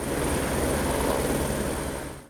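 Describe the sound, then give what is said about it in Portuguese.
A Military Police helicopter in São Paulo drones steadily overhead, its rotor and engine forming a loud, continuous rumble that holds for a couple of seconds before cutting off abruptly. “A menina esperta e a mãe foram resgatadas pelo helicóptero Águia da Polícia Militar.”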